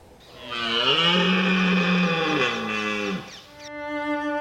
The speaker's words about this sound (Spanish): El berrido, la ronca y enérgica brama del macho, es su manera de marcar territorio, de anunciar su superioridad al resto o de desafiar al líder y citarlo a combate.